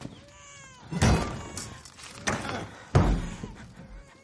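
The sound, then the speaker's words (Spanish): Variasco drives a sword into a wooden door three times, heavy, sharp thuds at uneven intervals, with the last blow loudest. A thin, wavering, cat-like wail runs faintly underneath. “Variasco clava la espada en la puerta.”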